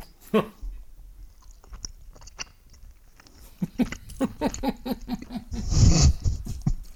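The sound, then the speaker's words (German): Crunchy chewing on a piece of hard mountain cheese: a few early bites, then a steady rhythmic run of moist mouth clicks and crunches that grows louder toward the end, with no talking. “ich werde mal hier mit ein bisschen Bergkäse reinkrätschen.”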